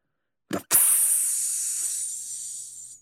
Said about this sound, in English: he gingerly puts one thumb on either side of the clasp, pulls it open, and then lifts the lid off of the refrigerated unit, letting out a hiss.